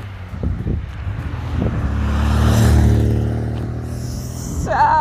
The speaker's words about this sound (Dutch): Oh, dat is echt zo'n Franse autootje. Groen, open dak, klein.